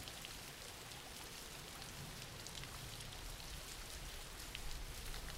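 Steady rain falls without pause, a dense hiss of countless drops spread evenly across the whole clip, with a few slightly brighter patters near the end and no voices.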